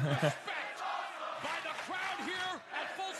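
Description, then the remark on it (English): A large wrestling crowd chants "This is awesome" together in a loud, steady roar, rising and falling voices forming a rhythmic, repeated call over dense cheering noise. “yep, I'll allow that This Is Awesome chant for this because it is actually awesome.”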